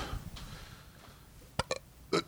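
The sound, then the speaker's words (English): Three short, clipped throat noises as someone tries and fails to burp, each a brief gulping pop separated by quiet moments. “Hmm, can't even get burps out. I never know how to burp.”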